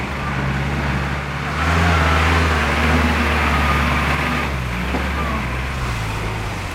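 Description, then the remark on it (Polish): Several car engines rumble and rev steadily as seized, requisitioned cooperative cars pull away from Parczew, Poland, a continuous low mechanical drone that swells in the middle and stays loud throughout, with no voices. “Akcja została przeprowadzona w ciągu kilku godzin, późnym popołudniem trwała do północy, aż do wyjazdu na zdobycznych, zarekwirowanych samochodach spółdzielni tutaj z Parczewa.”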